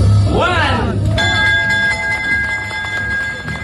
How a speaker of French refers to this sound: La cloche hier à l'ouverture de la Bourse de Paris pour marquer l'arrivée de 10 heures sur les marchés.